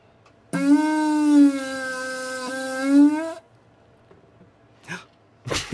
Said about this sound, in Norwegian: jeg tror du må booste volumet høyt på alle disse alle prompene